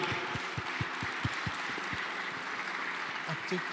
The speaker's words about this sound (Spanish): ¿Por qué no damos un fuerte aplauso a Jesús, al Espíritu Santo, al Padre?